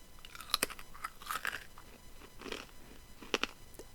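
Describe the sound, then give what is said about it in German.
Crunching of a crisp snack being chewed during a recording, with sharp irregular bites and crackles spread across a few seconds, fairly quiet and with no talking. “Also ich höre es crunchen.”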